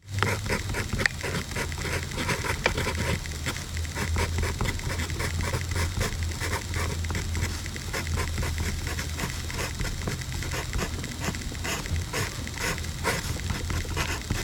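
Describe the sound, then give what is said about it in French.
Steady pencil scratching on paper as a math formula is written, quick strokes repeating in a rhythmic pattern that reproduces the rhythm of a music theme, with a faint low hum underneath and no voices. “c'est le bruit du grattement du crayon sur le papier qui reproduit le rythme du morceau”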